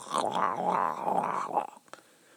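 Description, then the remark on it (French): A voice imitates vomiting, a strained, wavering throaty gag lasting over a second, followed by a few small wet mouth clicks trailing into quiet. Moderately loud. “Puis il y a le petit bruit de bouche, là.”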